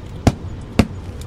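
A hand slaps a GPS device twice, about half a second apart. Both hits are sharp and fairly loud over a quiet background, and no one speaks.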